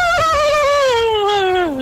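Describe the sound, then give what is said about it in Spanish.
A person imitates a horse's neigh with one loud, continuous whinnying cry that wavers slightly as its pitch slides steadily downward over about two seconds, with no talking. “Ay, es una Ah, es una relinchada eso.”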